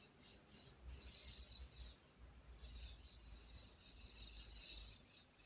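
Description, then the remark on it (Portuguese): Faint birdsong drifts in from outdoors on a quiet carnival Sunday, with the house and street silent; a steady stream of chirps and trills over a low background rumble, with no one talking. “E estou eu aqui, os pássaros, olha que delícia.”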